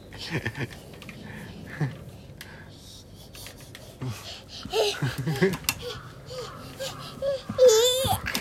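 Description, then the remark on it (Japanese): Two babies crying, their fussy whimpers and wavering wails coming in uneven bursts and growing louder toward the end, with some babbling voices mixed in. “危ない両方は泣いてんのあ両方は泣いてんねそうなんだよ”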